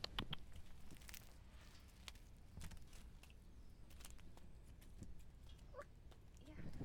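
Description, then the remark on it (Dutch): Chickens peck at scattered food scraps: quick, irregular taps and clicks, some in short bursts, over a soft, steady outdoor background with no clear talking. “Mijn kipjes lusten alles.”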